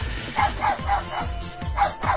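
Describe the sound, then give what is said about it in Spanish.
A dog barks excitedly in a quick series of about six short, yappy barks at a steady pace, moderately loud, with some low background rumble. “En lo que el perro se deja de emocionar, dejen de decirle... ya está me perdí de concentración.”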